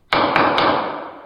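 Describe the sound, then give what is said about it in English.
A gavel raps three times in quick succession, sharp, each knock blending into a lingering, slowly fading resonance; nobody speaks. “so this is the sound of a gavel on this.”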